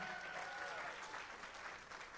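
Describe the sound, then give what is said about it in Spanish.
A crowd applauds steadily for Jesus, a dense wash of many hands clapping at an even loudness, with a faint cheer or whistle rising briefly near the start. “Vamos a darle a Jesús un aplauso bien fuerte.”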